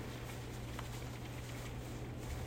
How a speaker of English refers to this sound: Got a little rainstorm moving through today